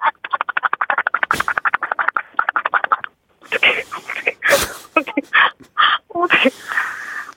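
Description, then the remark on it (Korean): A dog laps water from a ceramic bowl in a quick, steady run of wet slurps for about three seconds, fairly loud, followed by people talking. “첫 번째는 개, 예. 도자기 그릇에 물 먹는 소리야.”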